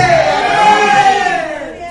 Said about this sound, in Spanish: ¿Cuántos guerreros de Dios hay esta noche en este lugar? Los guerreros de Dios den un grito de guerra. Vamos a ver.